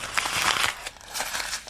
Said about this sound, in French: un bulletin déchiré et froissé.